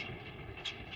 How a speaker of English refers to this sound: That's the sound of a producing oil well and the sound of a smart investment.